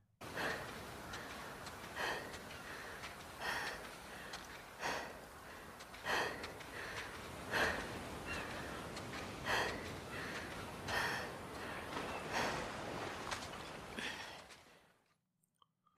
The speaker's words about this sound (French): Je vous mets la dernière respiration.